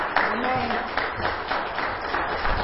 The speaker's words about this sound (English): Now, y'all, let's give God a hand clap for praise.